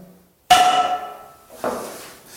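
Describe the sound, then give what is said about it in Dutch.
Two sharp hammer blows strike a small wooden beam (a garden post) lying on the floor with blood placed on it, to make blood spatter; the first is loud with a brief metallic ring, the second slightly softer about a second later; no one speaks. “En dan heb ik hier een hamer en daarmee ga ik slaan.”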